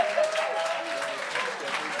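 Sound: audience applause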